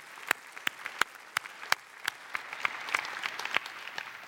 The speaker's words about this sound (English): Hey, uh, let's let's cheer on all of our testimonies in this series. That's been great.